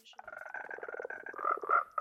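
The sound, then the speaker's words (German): Newly spawned frogs in a video game croak in a rapid, rippling chorus that runs continuously for about two seconds, fairly loud, growing stronger toward the end. “Ich, ich spawn jetzt äh, blaue Frösche.”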